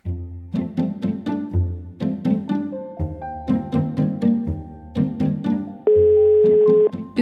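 An upbeat rhythmic music bed plays, then near the end it gives way to a single loud, steady telephone ringing tone of an outgoing evening call to Uniskrap in Hasselager, lasting about a second before the music resumes.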